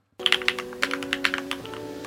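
machine, typing on computer keyboards

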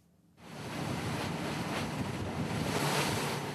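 nature, ocean waves crashing

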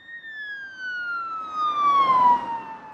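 vehicle, ambulance siren

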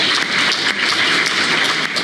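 crowd, applause

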